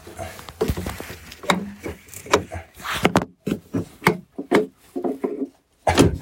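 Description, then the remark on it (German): A small wooden puzzle box door is turned open, giving a run of irregular wooden clicks, rubs and knocks that start and stop unevenly, with faint voices now and then. “Ah, musst drehen.”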